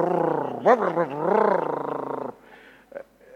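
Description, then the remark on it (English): A voice imitates a car with a broken silencer to mimic how spoken Russian sounds: a loud, buzzy, rumbling drone held for about two seconds with a couple of rising swoops, then trailing off into quieter murmurs. “Sounds like a car with a broken silencer, like.”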